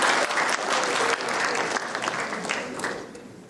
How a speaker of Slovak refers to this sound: Krásne. Takže dne... zatleskajte tým ľuďom.